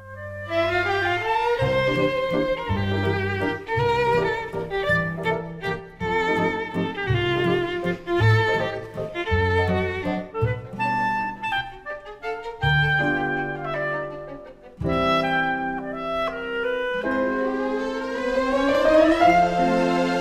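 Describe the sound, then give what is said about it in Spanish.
Full orchestral score from an Oscar-winning Disney film plays loud and continuous, with sustained strings and brass, deep bass notes, and sweeping rising glides building toward the end, no voices. “con su trabajo en la película a la que pertenece esto, esta banda sonora”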